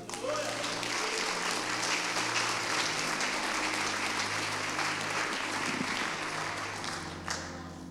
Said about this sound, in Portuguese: Aleluia! Aleluia! Você pode aplaudir o Senhor Jesus?